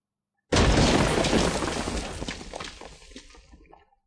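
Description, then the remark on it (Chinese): A sudden loud burst of a wooden cabin's window glass shattering after a fine crack spreads across it like a spiderweb, with a bright crackling spray of breaking shards that gradually tapers off over a few seconds. No voices. “其中一间木屋窗户的玻璃出现一道细微的裂痕。然后裂痕如蛛网般迅速扩散，就如同有一只无形的手在玻璃上刻出一棵没有树叶的树，然后砰然向一侧破裂。”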